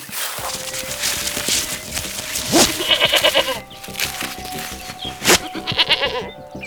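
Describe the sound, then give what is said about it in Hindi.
A goat, tied up by a hunter at the edge of a forest where the sal trees begin, bleats repeatedly in wavering, nasal cries, with soft rustling and shuffling steps in the background and no talking. “हाथ में एक बकरी पकड़कर जंगल के किनारे पर जहां साल के पेड़ शुरू होते हैं उसने बकरी को बांध दिया”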